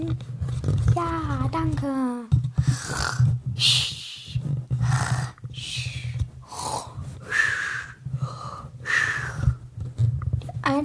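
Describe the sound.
A voice imitates snoring with a run of rough, snorting inhales and wheezy exhales, repeated for several seconds, fairly loud over a low steady hum.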